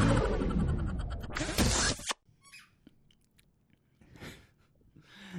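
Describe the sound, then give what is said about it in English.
A dog named Reynold gnaws on a toy: about two seconds of loud, dense crunching, then quieter scattered bites with a faint squeak and a few soft chomps. “We are of course back, back, back again to bring you another fun episode of listening to Reynold play with his toys.”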